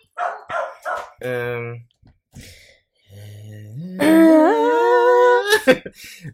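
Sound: dog barking outside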